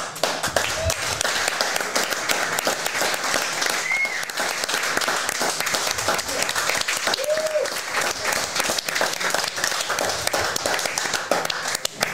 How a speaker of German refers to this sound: So, ich habe jetzt extra gewartet, bis die Kamera wieder auf mich ge äh, äh geschwenkt ist und dann habe ich geklatscht.